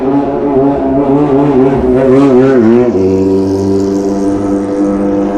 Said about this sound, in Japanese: おっとバイクが来ましたやっぱり定番ですねこの時間